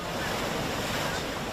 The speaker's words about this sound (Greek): Τα νερά του φουσκωμένου ρέματος βγαίνουν στον κεντρικό δρόμο της Ναυπάκτου. Καταστήματα και σπίτια πλημμυρίζουν.